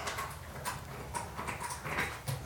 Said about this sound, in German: Das ist unser kleiner Hund, der sich mit seinem Strategiespiel spielt.